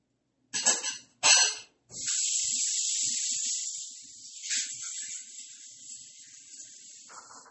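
Water runs steadily from a tap in a continuous hiss while someone washes dishes, preceded by a couple of short clattering bursts like dishes being handled at a sink. No one speaks.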